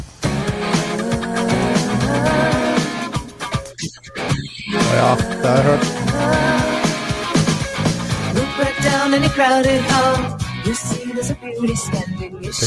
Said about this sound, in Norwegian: Kan hende, hvis jeg spiller introlåta, at dere kanskje har hørt den? I hvert fall kanskje noen av lytterne har hørt den.